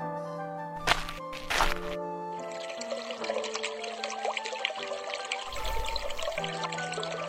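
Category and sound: nature, water pouring and trickling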